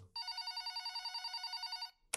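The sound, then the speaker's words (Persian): Shahmiri's telephone bell rings in a rapid, steady trill of about two seconds, loud, with bright metallic harmonics, then cuts off abruptly. “تلفن شاهمری زنگ خورد”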